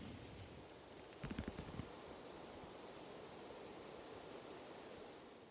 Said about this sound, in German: Und wer da jetzt genau zugehört hat, das war das Rauschen, das ist das Rauschen von der Thaya vom Fluss, vom Grenzfluss zwischen Österreich und Tschechien gesehen und gehört vom Aussichtspunkt über der Schlinge dieses Flusses in Hadeck.